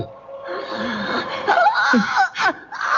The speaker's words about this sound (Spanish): Es como un lamento, un grito plañidero.